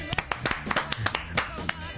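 A brief round of studio clapping: a quick, uneven flurry of sharp, crisp hand claps from a few people, lasting about two seconds at moderate loudness.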